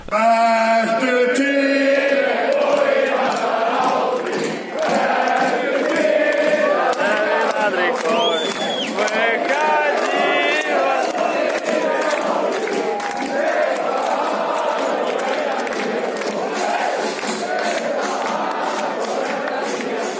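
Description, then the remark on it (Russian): A large crowd of Icelandic football fans shouts and sings their chants together, loud and continuous, with many overlapping voices rising and falling in a rhythmic roar. “Вот, и вместе с ними мы, короче, начали это, кричать их кричалки.”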